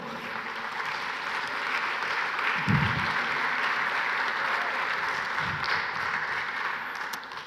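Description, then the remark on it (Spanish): Sustained audience applause, a dense steady wash of many hands clapping that holds at an even level for the whole stretch, with a brief low murmur of voices partway through. “No quiero ver quién está aplaudiendo porque los hombres, sí, ok.”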